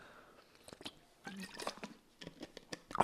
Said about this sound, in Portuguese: Já pus água no microfone, lindo.